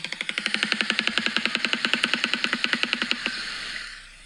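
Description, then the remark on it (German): A bird's rapid bill rattle, a fast, even machine-gun-like series of about thirty sharp dry clicks over roughly three seconds, fairly loud, then stopping abruptly into quiet background. “Es hört sich ein bisschen an wie ein Maschinengewehr.”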